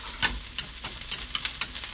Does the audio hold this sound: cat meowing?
no